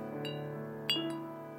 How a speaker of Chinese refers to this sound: 直到起风，听到阳台上挂着的风铃叮叮当当作响。